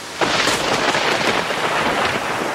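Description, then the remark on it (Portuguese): Heavy rain pours down in a steady, loud hiss, with a low rumble of thunder mixed underneath. The downpour starts abruptly and continues without a break, with no voices. “Tá chovendo aí?”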